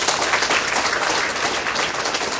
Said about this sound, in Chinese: 认可吗？认可。认可是不是应该用掌声给到他们？